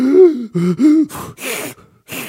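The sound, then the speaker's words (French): A person gasps for breath several times in quick succession, voiced strained inhalations followed by breathy, noisy intakes, fairly loud with no speech. “Oh là, j'ai oublié de prendre ma respiration.”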